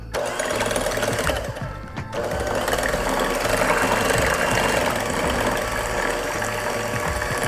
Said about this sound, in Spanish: Tenemos los cuatro huevos ya. Eh, ustedes pueden utilizar una batidora de mano o yo voy a utilizar una batidora eléctrica. Se me hace más fácil.